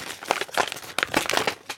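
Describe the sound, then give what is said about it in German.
Crisp crinkling and rustling of gift wrapping paper being handled and pulled open as a present is unwrapped, a busy stream of irregular crackles and tearing bursts with no talking. “Jetzt mache ich dein Geschenk. Wertlos. Ihr, hört ihr, wie wertlos sich das jetzt schon anhört?”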